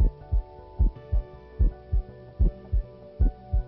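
A steady heartbeat thumps in low, muffled lub-dub pairs, about five beats at an even pace, over a faint constant hum with no voices.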